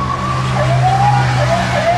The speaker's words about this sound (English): How about that siren?